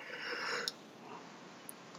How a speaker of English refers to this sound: I'm yawning right now at the as I talk about this news because that's just kind of how I felt about this whole thing.